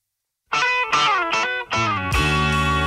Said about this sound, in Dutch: je hoort de Britse … en basgitarist … en de Amerikaanse fotograaf Linda Eastman, oftewel …